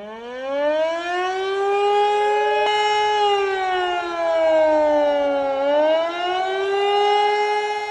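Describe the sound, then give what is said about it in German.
A civil defense warning siren wails continuously at 11 a.m. in Gladbeck, Bottrop and Gelsenkirchen during the nationwide warning day test, not a real emergency; its pitch slowly rising and falling in long sweeps, loud and steady throughout with no voices. “Habt ihr bestimmt mitbekommen, heute um 11 Uhr heulten die Sirenen in Gladbeck, Bottrop und Gelsenkirchen.”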